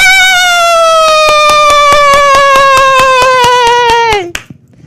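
An audience gives a performer a hand: loud, steady rhythmic clapping at a quick even beat, running under a long sustained high tone that slowly drops in pitch. Both cut off abruptly near the end.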